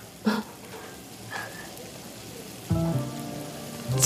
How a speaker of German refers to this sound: Willst du ihn äh, einschüchtern? ja? Wenn du dann äh, würfel mal auf Intimidation.